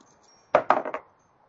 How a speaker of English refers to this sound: and get a, an 11 on the dice with my plus six acrobatics.